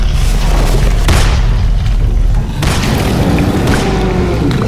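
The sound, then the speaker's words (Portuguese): A few sharp, booming gunshots, fired at a wounded creature in rain and mud, crack out over a loud, constant roar of heavy rain, one after a brief lull. No one speaks. “Atira logo!”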